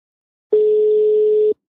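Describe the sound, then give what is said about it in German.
A single steady telephone ringback tone sounds for about one second at moderate loudness, a clean hum-like beep standing alone in silence, with no voices, as a phone call goes unanswered. “Du musst ein bisschen klingeln lassen.”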